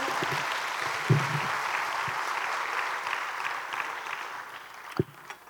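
An audience applauds for the Lord in a steady, dense wash of clapping that holds for several seconds, with a couple of low thumps, then tapers slightly at the end. No one speaks over it.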